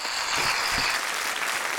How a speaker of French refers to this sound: Là, je vais essayer de faire une bonne main d'applaudissement, mais pour de vrai.